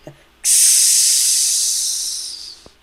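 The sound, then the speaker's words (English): A loud, steady hiss of compressed air on a drop ride, let out right before the drop, bursts in abruptly and rushes continuously for about two seconds, slowly fading before cutting off, with no voices present. “you hear the air being compressed. And then right before you drop, you can hear it being let out again Right.”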